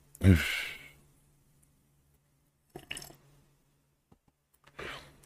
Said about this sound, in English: Hey, honey, my wife just came in and brought me some coffee. Mmm, love you. Mmm. Yeah, let me take a sip of that hot coffee real quick, ladies and gentlemen.